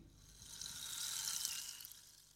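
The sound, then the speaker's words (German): A soft, steady sizzling hiss as a man drips a few drops of liquid from a can onto an old ring and a fine cloud of vapour rises; it swells gently and fades over a couple of seconds, quiet, with no voices. “Beim vierten Ring bleibt das Zischen aus.”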